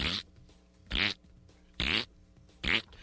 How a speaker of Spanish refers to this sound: Y puedes configurar hasta el tipo de pum que te quieres echar.